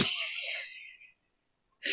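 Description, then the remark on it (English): A loud, wheezy, exaggerated gasp drawn in sharply and fading over about a second, followed by silence and the start of another breathy intake at the end. “Made me sound like I'm like a 45 year old smoker, but I tried to gasp.”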